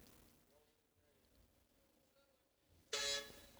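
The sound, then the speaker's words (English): A loud, sudden horn blast near the end, brash and harmonic like a big truck honking once, following a few seconds of low background murmur and faint traffic noise. “You see, it's like a big truck too. So like you you oh, heard he how, honked at Yes, he honked at her, and like look.”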